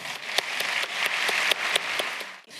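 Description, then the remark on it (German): An audience applauds a talk, a dense wash of many hands clapping with a few sharper individual claps standing out, sustained at an even, fairly loud level with no voices. “Viel Beifall vom Publikum.”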